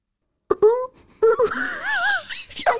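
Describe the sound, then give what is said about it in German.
A human voice imitating a tawny owl call: a short hoot, a pause, then a longer wavering, quavering hoot, fairly loud, ending in a brief breathy laugh. “aber wie macht das Kreuzchen?”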